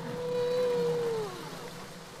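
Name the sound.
humpback whale song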